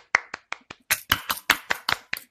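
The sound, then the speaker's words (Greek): A few hosts clap for themselves briefly, starting with several sharp separate claps that quickly thicken into a short burst of lively applause, with no talking over it. “Χειροκροτάμε του εαυτού μα.”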